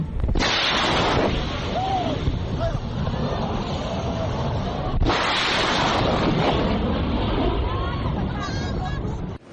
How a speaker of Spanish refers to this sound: El desarrollo de los aviones supersónicos después de la Segunda Guerra Mundial abrió la puerta a la exploración de los fenómenos sonoros como el boom sónico o explosión sónica, que se origina cuando un objeto sobrepasa la velocidad del sonido.